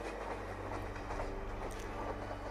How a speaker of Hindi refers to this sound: गाड़ी में अंधेरा था सिर्फ ट्रेन की आवाज़ सुनाई दे रही थी और कोई आसपास दिखाई नहीं दे रहा था